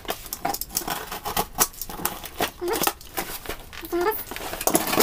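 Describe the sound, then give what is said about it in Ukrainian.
Busy crinkling and ripping as the packaging of a parcel is torn open, a steady run of sharp rustles and snaps with brief pauses in between, and no talking. “Зараз розпакуємо. Не дуже так вправно, мабуть, в мене виходить. Але вже вийшло.”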